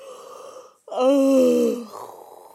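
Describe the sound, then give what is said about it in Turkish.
A voice imitates pirates snoring, drawing a breathy inhale, then letting out a loud, drawn-out nasal groan that trails off into a softer rasp, alone. “horlamaya başladılar.”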